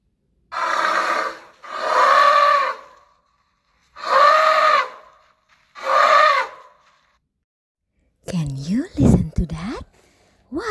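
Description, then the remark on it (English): Four drawn-out, voice-like calls with pauses between, then a loud, harsh elephant trumpet that blares and wavers for a couple of seconds at the end, prominent. “Yeah, it was an elephant.”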